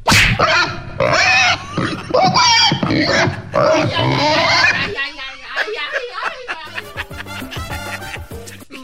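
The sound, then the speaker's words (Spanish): A person makes loud, rough pig-like grunts and snorts for several seconds, then the sound shifts into chuckling and voiced talk. The oinking is a human voice imitating a pig. “porque ya ves que vino la Asociación Protectora de Animales y pensaron que tenías un puerco aquí.”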